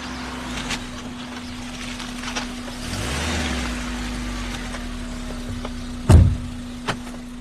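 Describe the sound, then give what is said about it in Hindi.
A government car's engine rumbles in front of a hospital, swelling briefly and then easing off as the vehicle pulls away after dropping someone off, with a steady hum throughout and a sharp knock near the end. “उस दिन मैं वापस अपने घर जाने वाला था सरकारी गाड़ी ने मुझे हॉस्पिटल के सामने छोड़ दिया”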